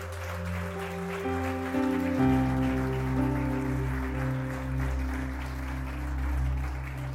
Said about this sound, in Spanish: Todas ustedes han sido mujeres valientes que escogieron por la vida y hoy las honramos. Den un aplauso a esas madres, por favor.